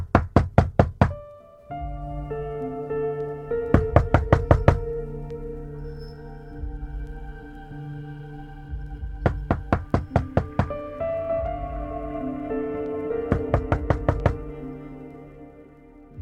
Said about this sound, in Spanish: mientras le daba suaves masajes a mis ojos, aún deslumbrados por la luminosa concentración, sonó la puerta.